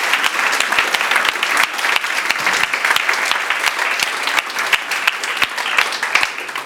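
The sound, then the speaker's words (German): An audience in Segeten claps steadily for several seconds, a dense, even patter of many hands with sharp individual claps popping out, loud throughout with no voices. The applause is for the 'Lauf gegen den Hunger' charity run, where 220 participants raised over 42,000 euros for children in Africa. “Come on, wenn das mal kein Applaus wert ist.”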